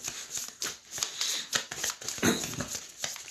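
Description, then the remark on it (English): Three people shuffle playing cards at once, a dense, overlapping crackle of riffling and snapping cards, steady for a few seconds with no talking. “We are all three shuffling.”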